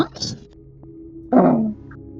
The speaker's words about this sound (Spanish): un maullido feroz de un gatito negro revolviendo la basura. Al parecer, revolviendo en un bote negro de basura, eh, recogiendo las sobras de algo.